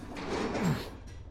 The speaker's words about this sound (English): Just keep working on that door. We don't have a lot of time.